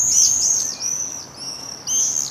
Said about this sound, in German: Bei diesen Luftakrobaten handelt es sich um Mauersegler, und ihre Rufe sind der Sound des Sommers, meint Ferdinand Schmeller von der Stadt Wien Umweltschutz. Der Mauersegler ist ein typischer Sommervogel und wird auch oft als Sommerbote bezeichnet.